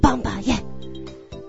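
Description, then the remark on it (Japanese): A voice imitates the sound of Santa's sleigh as imagined for an "Antonio Inoki Santa" (not the jingling bell sound), with a few quick, punchy vocal bursts followed by a short shouted syllable, then a steady low hum lingers for the rest of the second. “これが、ソリの音です。”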